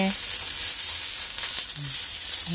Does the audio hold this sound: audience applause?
no